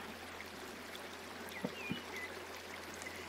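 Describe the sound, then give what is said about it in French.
A river in a clearing flows steadily with a constant, soft rushing wash, punctuated by a couple of brief knocks and faint bird chirps. “remarquez la rivière qui continue de s'écouler inlassablement.”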